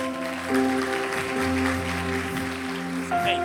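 An audience claps for the Lord steadily for a few seconds, a dense crackling wash of many hands, while sustained keyboard chords ring underneath and shift pitch partway through.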